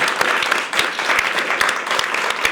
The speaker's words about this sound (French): Je tiens vraiment à remercier avant tout le public qui est ici présent. On peut euh, l'applaudir bien fort.